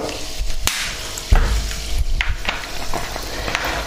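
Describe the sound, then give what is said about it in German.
Steady fizzing of carbonated water in a freshly opened bottle, a continuous hiss dotted with tiny crackling pops and a few soft knocks, with no talking. “Wir öffnen jetzt hier, ja, ja, so, wir haben hier jetzt eine Flasche offen aufgemacht. ihr hört das, Wasser mit Kohlensäure.”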